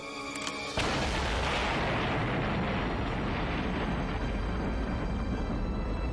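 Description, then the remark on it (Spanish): A V2 rocket missile launch by Nazi Germany at the end of World War II, ordered by Hitler: after a brief hum, a sudden ignition erupts into a loud, sustained roar that stays powerful and rumbling to the end, with no voices present. “Como último recurso para ganarla, Hitler ordena el lanzamiento de una nueva arma secreta. ¡Fuego!”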